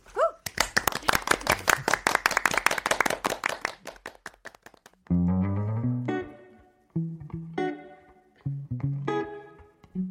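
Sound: studio applause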